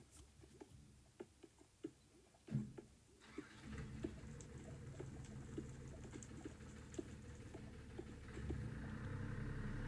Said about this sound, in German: Oh, ich hoffe, man hat es nicht so deutlich gehört, weil draußen ist gerade irgendein Auto gefahren. Das war ziemlich laut. Hoffentlich hat es nicht gestört, ich weiß es nicht.